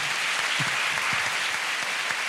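An audience of about 450 people claps steadily for a woman thanked by the speaker, a loud, dense wash of applause, the many overlapping hand claps blending into a continuous roar without pause.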